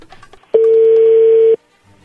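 A single steady telephone tone, heard as a call is being dialed, holds one even, mid-pitched note for about a second, loud and unbroken, then cuts off abruptly; soft background murmur comes before and after.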